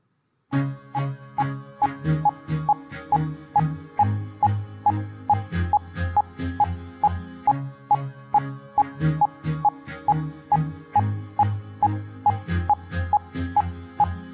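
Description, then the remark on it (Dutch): Short, evenly spaced beeps tick steadily on the beat over a repeating rhythmic musical pattern, continuing at the same pace throughout with no talking. “zul je horen dat die piepjes regelmatig zijn”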